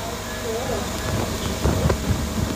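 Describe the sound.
A steady, breathy rush of air blown in by ventilators on a Covid ward, a continuous wind-like hiss, with faint muffled voices or movement underneath.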